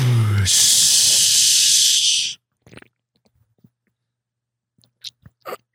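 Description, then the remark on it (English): A beer can cracks open with a sharp snap, followed by a loud, steady fizzing hiss lasting about two seconds, then a few faint soft sounds in near quiet. “Yeah, so you probably heard there was only one crack of a beer”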